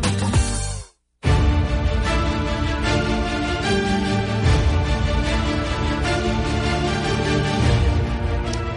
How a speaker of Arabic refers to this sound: من تسمع هذا الخلفيه الموسيقيه معناته اللي عندنا خبر فضائي.